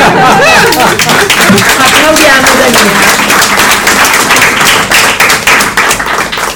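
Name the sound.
audience applauding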